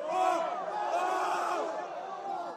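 Football fans in a bar in Marseille erupt in loud, sustained cheering in the fifth minute of play, many voices shouting and yelling together in a dense roar that holds steady for a couple of seconds.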